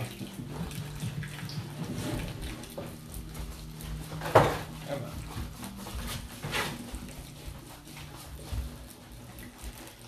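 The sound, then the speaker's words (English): Water pours steadily into a bowl of pancake batter, with a soft continuous splashing and a sharp clink of a utensil or dish about halfway through. No one speaks. “Making our pancake batter, adding some water.”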